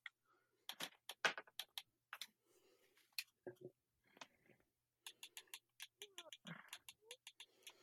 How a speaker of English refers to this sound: We can hear you in the background. You can hear what in the background? The clicking of your Xbox. Uh, I think that's the left stick.